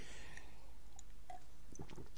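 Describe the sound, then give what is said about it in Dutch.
Someone takes a quiet sip of water on a very hot day: soft wet mouth clicks and a small swallow over a faint hum, with no talking. “Even een slokje water, want het is erg warm.”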